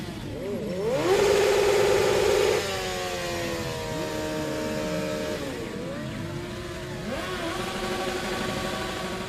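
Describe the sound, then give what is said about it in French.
A motorcycle engine revs hard while doing burnouts inside an apartment, its pitch climbing and dropping in repeated surges, loudest at the start and then settling into steady throttle blips, with no voices. “Ça, c'est le bruit de la moto avec laquelle on s'amuse à faire des burns dans l'appartement euh, quand on s'emmerde trop.”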